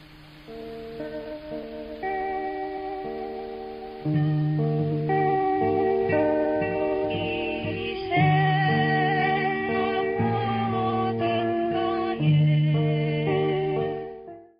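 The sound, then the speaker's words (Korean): A muffled, lo-fi song recording from a 1978 illegal cassette tape made and distributed underground in South Korea, with a dull, tape-like tone, steady sustained melodic notes shifting in pitch over about fifteen seconds, with no clear words coming through. “노래 가사 좀 들리셨나요?”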